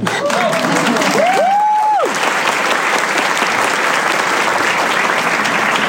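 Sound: audience applause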